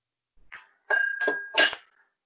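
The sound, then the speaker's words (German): A glass breaking: a sharp shattering crash followed by a couple of bright clinking bursts as shards scatter, all within about a second, with no talking. “Ich glaube, da ist gerade irgendwo ein Glas zu Bruch gegangen bei einem von euch.”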